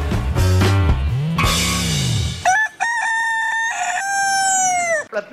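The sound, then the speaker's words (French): A rooster crows loudly, one long drawn-out call that rises, holds and then falls away, with no talking over it. “c'est le son du coq d'après les Allemandes.”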